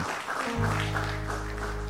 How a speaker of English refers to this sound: So y'all give the Lord a hand clap today. Hallelujah.